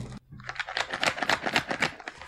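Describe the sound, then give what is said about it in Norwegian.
Rapid, steady clacking of the mechanical keys of a keyboard soundboard, fairly loud, with many sharp key presses in quick succession and no talking. “Tastaturbord. Et soundboard med mekaniske taster.”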